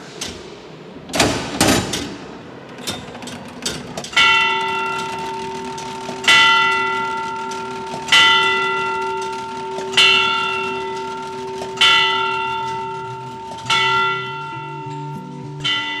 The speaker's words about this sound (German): Schauen wir, ob das läuft. Wir probieren jetzt auch noch das Stundenschlagwerk.